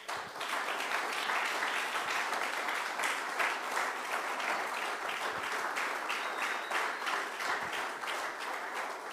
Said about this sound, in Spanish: Gloria a Dios, le palmas al Señor.